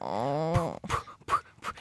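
A dog whimpers, one drawn-out whine sliding downward in pitch, then three short breathy yelps spaced about half a second apart. Fairly loud, with no talking.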